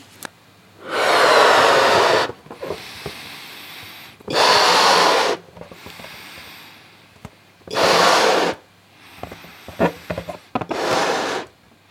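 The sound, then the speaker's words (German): Four long, loud, breathy bursts of air blown by mouth into a balloon, inflating it relatively large for an experiment. Each burst lasts about a second and a half, separated by pauses with soft rubbery squeaks and quick inhales between breaths. “Und wir brauchen einen Luftballon, der relativ groß aufgeblasen ist. Das mache ich jetzt mal.”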